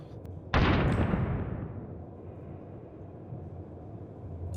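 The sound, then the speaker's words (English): A sudden, loud blast from a small egg-shaped bomb bursts out with a sharp crack, then fades over a second or two into a low, lingering rumble. “and you see shrapnel just pour out of the little hole.”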